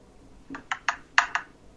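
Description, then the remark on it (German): A die is rolled and clatters across a hard surface in a quick series of about five sharp, bright clicks, uneven in spacing, the later bounces slightly louder, then it settles into quiet, landing on four. “Nein, nein, der Würfel, der Würfel fällt schon.”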